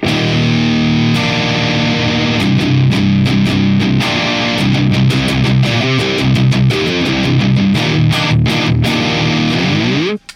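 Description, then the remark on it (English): Loud electric guitar chugs through the Xenia distortion pedal on its own, its mid-frequency sweep enhancing the mid range, with tight palm-muted rhythmic stabs mixed with sustained heavy chords, then a brief squeal as it cuts off at the end. No one speaks. “the mid frequency sweep to the level and the frequency that enhances all that beautiful mid range that allows me to articulate the chugs as well. Here's the Xenia on its own.”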